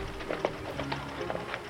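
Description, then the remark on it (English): A handful of hollow hoof clops from a dark horse slowing down and stopping, at an uneven, unhurried pace over a low steady background hum, fairly quiet, with no talking. “The horse slowed down to a gallop and stopped in front of me.”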